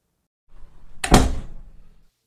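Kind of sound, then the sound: household object, office door opening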